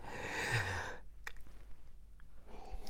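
yawn

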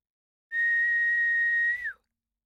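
man whistling

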